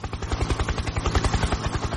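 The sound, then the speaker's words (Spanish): A helicopter landing, its rotor beating in a rapid, steady chop of low thumps over a broad engine roar, loud and continuous with no voices. “Mayor, mayor, ¿usted me puede explicar por qué hay un helicóptero posándose sobre la red en este instante?”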